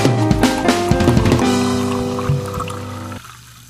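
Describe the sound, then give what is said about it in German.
Fizzy lemonade splashes as it is poured into a glass, with a bright fizzy hiss and ringing tones that fade out over a few seconds; no voices. “Lemo, der Podcast mit dem Zisch”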